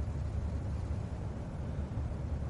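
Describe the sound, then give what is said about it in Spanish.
A car rolls slowly down a residential street, giving a steady, low engine and road rumble that holds at an even level throughout, with no voices. “El coche circula despacio por una calle residencial.”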